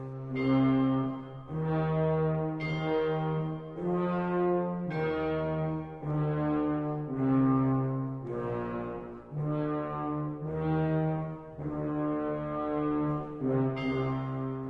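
Ophicleides and bassoons intone the Dies irae theme in the fifth movement, Dream of a Witches' Sabbath, of Hector Berlioz's Symphonie fantastique: low, loud, sustained notes, a slow solemn melody of about ten separate tones with no voices.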